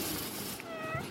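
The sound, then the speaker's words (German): A cat meows once, a rising and falling tonal cry over a steady background hiss, with no talking. “Also, das ist eine Katze, oder?”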